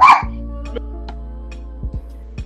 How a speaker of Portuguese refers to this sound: O cachorro.